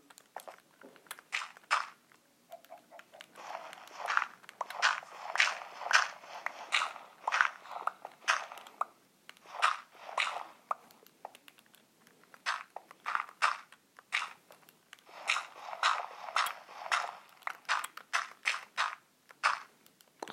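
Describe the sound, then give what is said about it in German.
Crunchy, gritty digging sounds from a video game, as gravel blocks are broken one after another with a stone shovel in quick, uneven bursts, fairly loud with no talking. “Ich baue gerade meine ganze Wohnung mit Kies voll.”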